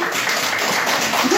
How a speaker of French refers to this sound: Bon, je remercie mes assistants du jour. oui, on pouvait les applaudir.